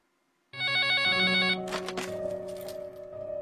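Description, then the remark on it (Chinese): A telephone rings loudly late at night with an incoming call, after a brief quiet start, a bright, rapidly warbling electronic trill that shifts after about a second into a noisier, buzzing continuation of the ring. “这天深夜，我接到一个女人的电话。”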